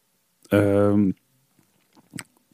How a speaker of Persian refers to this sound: منم یه قلوب از بربنم بزنم